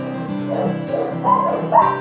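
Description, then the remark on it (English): A small dog makes a run of whiny, high-pitched yips and whimpers for about two seconds, with sharper cries near the end. “You're a nice little dog, aren't you?”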